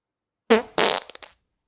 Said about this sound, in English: Ooh, that was a that was a prelude to a shite. bubble fart.